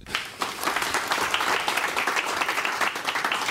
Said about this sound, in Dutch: Top 10, dat zit er op dit moment zeker nog in, maar er komen nog heel veel deelnames aan. Geef hem toch maar een applaus.